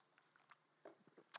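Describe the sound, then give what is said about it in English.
Wet mouth noises of someone sipping a drink: a few soft gulping and smacking sounds, ending in a sharp, louder lip smack. No talking. “Now, I'm just gonna get a drink.”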